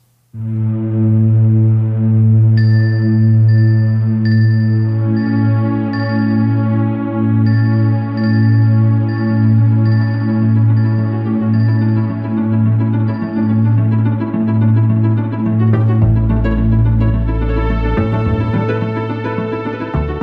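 Wintry video game music with an airy, sustained synth pad over a pulsing low bass line; soft, chime-like high notes repeat at a steady pace, and the texture thickens toward the end.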